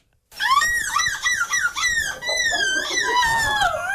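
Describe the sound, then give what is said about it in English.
A person in a seagull-calling contest imitates a seagull with loud, strained squawking cries that rise and fall in pitch, repeating almost without pause for several seconds, with no speech. “So you want to bring this contest to Huron County to make people scream like seagulls”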